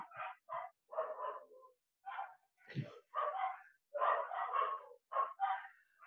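Dogs fighting each other bark and yelp in quick, irregular bursts, several overlapping at times as if more than one animal is involved, fairly loud, with no talking.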